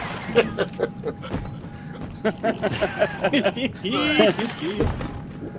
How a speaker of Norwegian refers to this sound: jeg nærmer meg båten her og hører det fuglekalaset inni her.